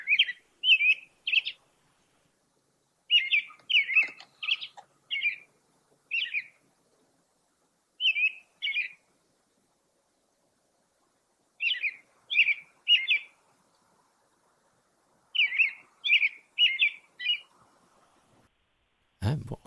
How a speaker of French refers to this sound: Oui, oui ben ça, c'est le, c'est un oiseau bien connu, c'est le, merle d'Amérique. Mm-hmm. Il est souvent le premier, je vous dis, c'est soit le premier, on, l'entend, là, de, je dirais vers 3h30, 4h du matin